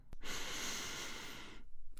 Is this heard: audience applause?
no